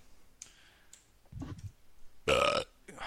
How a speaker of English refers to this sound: Dude, I'm a burp machine today. You are, bro.